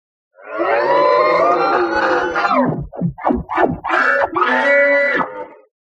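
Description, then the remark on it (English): A loud, drawn-out creature scream sound effect, harsh and layered, with a stretch of shorter warbling shrieks in the middle before one more long wail. No speech. “It screams like that in that moment”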